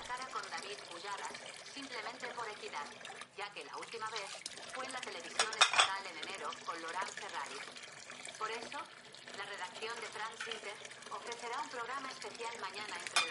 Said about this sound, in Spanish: Más tarde, George friega en la cocina escuchando la radio